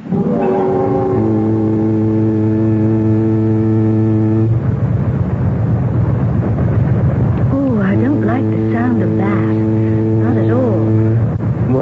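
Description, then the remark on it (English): A ship's foghorn sounds two long, deep, loud blasts separated by a rumbling pause. Voices talk over the second blast. “sound, that foghorn?”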